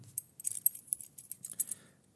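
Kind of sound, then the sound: household object, keys jangling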